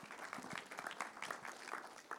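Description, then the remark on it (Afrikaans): A crowd applauds someone who recently had a baby, many hands clapping in a dense, even patter at moderate volume without a clear rhythm, with no voices standing out. “Geef hulle lekker hande klap.”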